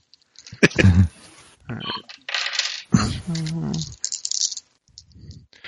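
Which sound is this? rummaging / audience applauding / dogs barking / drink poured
rummaging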